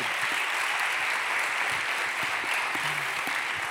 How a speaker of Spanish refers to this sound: Por eso yo quiero que ustedes se den un super aplauso y un super aplauso a su pastor esta noche.